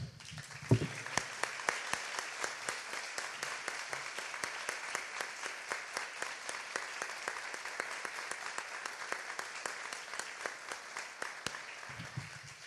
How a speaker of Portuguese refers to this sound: Eu quero, antes de mais nada, dar uma salva de palmas aos homens aqui, os pais aqui essa manhã.